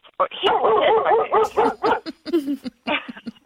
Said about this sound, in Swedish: Det, det är lite hundar som går förbi precis där jag bor.